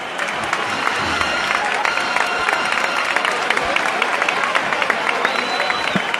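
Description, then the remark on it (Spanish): A crowd applauds steadily as Nazarene penitents enter El Salvador church on a rainy Holy Monday, dense clapping filling the whole clip with a continuous rattling texture and a few brief shouts mixed in, sustained. “Los nazarenos se están guardando entre aplausos. Escuchamos este momento, uno de los más bonitos que nos va a dar este lunes santo pasado por agua.”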